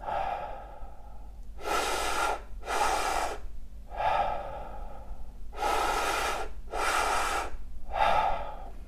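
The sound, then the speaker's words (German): Deep, rhythmic breathwork done lying down: two quick audible inhales, into the belly and then into the chest, followed by a long whooshing exhale letting go, repeated twice in a steady pattern with no talking. “Okay, in den Bauch, in die Brust und loslassen.”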